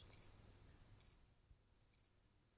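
A cricket chirps three times in short, evenly spaced trilled bursts, crisp and high-pitched against an otherwise quiet, faintly humming background.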